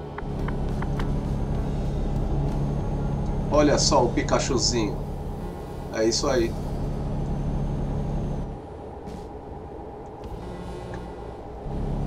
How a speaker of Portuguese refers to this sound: Pera aí que a gente não vai pegar esse trânsito não.